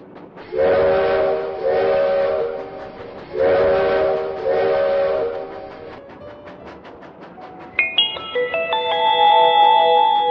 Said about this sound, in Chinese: 现在，我们的小火车又要继续开动了。前方停靠，第四站被子植物时代。